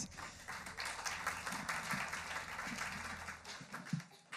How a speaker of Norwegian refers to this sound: lovsangerne en skikkelig applaus.